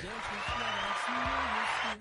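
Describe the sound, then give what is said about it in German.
A canned applause sound effect played from a Stream Deck: a steady, dense wash of clapping with crowd voices and cheers layered through it, holding at an even loudness for about two seconds before cutting off. “Applaus an Stream Deck.”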